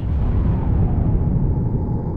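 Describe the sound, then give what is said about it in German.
A loud, deep explosion effect depicting the Big Bang, in which the universe formed about 13.7 billion years ago. A sustained rumbling roar fills the whole clip while its brighter upper hiss slowly fades, with no voices present. “Astronominnen und Astronomen sind sich heute sicher, das Universum ist vor etwa 13,7 Milliarden Jahren mit dem sogenannten Urknall entstanden.”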